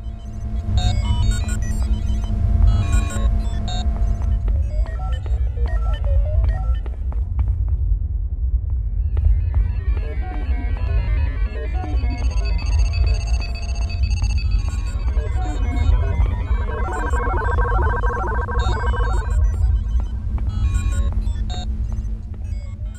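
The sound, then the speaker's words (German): Spaceship bridge ambience from a video game, heard while walking across the ship's bridge in the game's second part: a steady low throbbing hum underneath, with scattered electronic beeps, chirps and bright metallic clinks drifting around it, giving a strong sense of space. “Und es hat auch noch obendrein ein fantastisches Ambience-Design, also für die Sounds des Raumschiffs um einen rum.”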